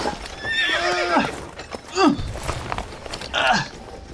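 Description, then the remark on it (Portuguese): A horse being led lets out a loud, wavering whinny, followed by shorter snorts and nickers, with a few hoof clops on hard ground in the background. “Eu conduzo o cavalo dela.”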